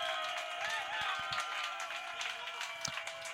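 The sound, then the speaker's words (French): Audience applause for the evening's VJ fills the moment, a dense and steady wash of many hands clapping at once, with crowd voices mixed in and scattered sharper claps breaking through. “une grosse main d'applaudissements”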